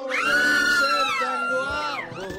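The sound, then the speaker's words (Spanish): A crowd screams and cheers loudly as a technology guest is introduced, many high-pitched voices shrieking together in a sustained burst that briefly dips and rises again near the end. “Pues ahí están los gritos, los gritos naturales cuando vamos a presentar a uno de los galanes de la tecnología.”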